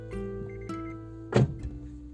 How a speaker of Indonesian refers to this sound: nih gue lagi ngerekam ini di mobil sebenarnya karena um, emang gue butuh environment yang uh, agak lebih kedap gitu loh jadi suara gue beneran emang bisa kedengeran tanpa terganggu suara apalah mesin suara apa gitu